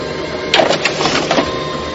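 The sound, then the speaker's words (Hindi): A printer whirs and grinds as jammed paper feeds through, with brief scraping bursts of the stuck sheet being pushed fully out; fairly loud, no voices. “जैसे ही उसने दरवाजे से बाहर कदम रखा प्रिंटर में अटका हुआ कागज पूरी तरह से बाहर निकल गया”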